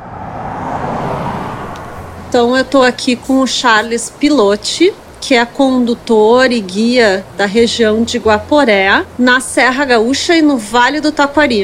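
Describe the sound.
A steady, rushing roar of the waterfall and river at the Recanto Cascata V13 campsite in Serra Gaúcha, after rain the day before, fills the background, heard alone for about two seconds before a man begins speaking over the constant water noise.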